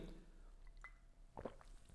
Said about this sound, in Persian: ببخشید من یه کوچولو آب خوردم که صدام نگیره